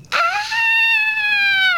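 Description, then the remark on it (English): A voice imitates a screech: one high, thin, sustained wail held at a steady pitch for under two seconds, then dipping slightly as it fades. It sounds more whiny than menacing. “They suddenly heard a loud, ominous screech ahead of them.”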